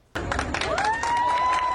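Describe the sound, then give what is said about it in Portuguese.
A crowd bursts into steady, dense applause as two indigenous boys lost for almost a month in the Amazon rainforest are brought back after a community-wide search, starting abruptly and holding for under two seconds, with a rising, sustained whistle or whoop of cheering carrying over the clapping. “Aplausos após uma longa espera e uma busca que mobilizou toda a comunidade.”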